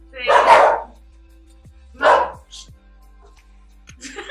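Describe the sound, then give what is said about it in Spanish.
A small dog named Matea gives two sharp, high-pitched barks about a second and a half apart, fairly loud, followed by a few faint clicks and rustles. “Es que hay un perrito en la calle ladrando y acá mi Ella es Matea.”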